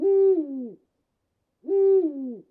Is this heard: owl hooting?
yes